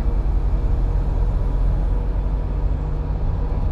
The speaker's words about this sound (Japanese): 今隣にトラックがいるからちょっとうるさいね